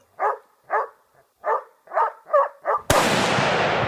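A dog barks six times in a quick, steady series of sharp, close woofs, then a sudden loud burst of harsh noise cuts in and fills the rest.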